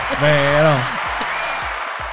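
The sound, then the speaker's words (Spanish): A burst of applause from a crowd for a new sponsor, steady and fairly loud, with a brief voiced exclamation rising over it at the start before the clapping carries on alone. “Eh, aplausos.”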